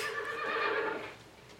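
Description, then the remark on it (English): A horse whinnies loudly, a wavering, shrill neigh that holds for about a second before trailing off into quiet. No one speaks. “Well, yeah, and he's like waiting for the horse to give him the cue.”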